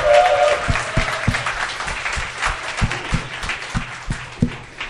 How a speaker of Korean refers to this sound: 박수 환영해 주세요.